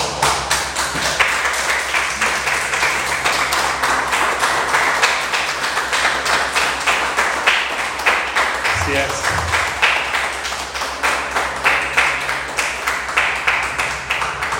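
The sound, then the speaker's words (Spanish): A church audience applauds for God steadily for about fifteen seconds, a dense, rapid patter of many hands clapping at an even loudness, with a low steady hum and some voices underneath. “Dale un aplauso a Dios.”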